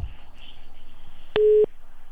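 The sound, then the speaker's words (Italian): A single short, steady telephone busy-tone beep after a dropped phone-in call cuts in over a faint, hissy phone-line background, then stops abruptly, leaving the line noise. “Caduta, allora...”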